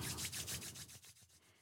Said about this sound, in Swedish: Eh, och vad du kan göra då eh, det är att du kan gnugga dina handflator mot varandra så att det låter så här.